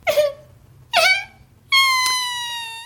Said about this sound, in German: Jetzt wirst du aufhören zu weinen.